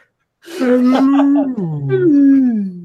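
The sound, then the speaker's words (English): A person's voice imitates a whale call: a long, moaning, wavering vocal tone that rises and falls in pitch, sustained for a couple of seconds, fairly loud. “oh, I can make whale noises because I'm a mermaid.”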